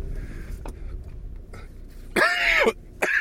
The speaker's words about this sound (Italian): Una tosse non è guarita un cazzo.